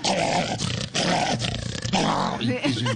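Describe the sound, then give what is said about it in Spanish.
A person vocally imitates an angry dog behind a gate in a front yard, growling and snarling loudly in rough, continuous bursts with brief breaks. “Entonces, que uno va caminando y el perro, el perro, sí, el perro está metido dentro de un antejardín y apenas lo ve uno y”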